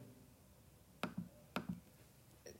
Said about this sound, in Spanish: O sea, cosa, que a lo mejor a algunos les gusta, a algunos no, es que al momento de nosotros picar el trackpad suena algo así.